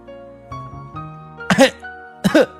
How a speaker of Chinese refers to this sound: 卢茨佩罗被小鸡们扬起的沙土呛得直咳嗽，我永远不会习惯你们荒谬的尘土澡。佩罗使劲咳出一块鱼骨